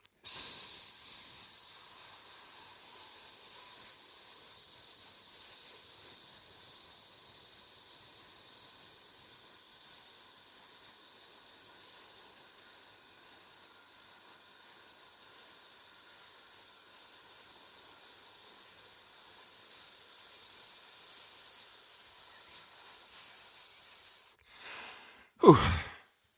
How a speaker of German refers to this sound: Ähm, okay, also kurz den Atemapparat hier in Gang setzen, einatmen, ausatmen. Einatmen und dann langsam auf S aus und los.